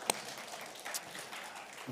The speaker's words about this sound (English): Uh, we are so thankful. Give mums a big round of applause, please.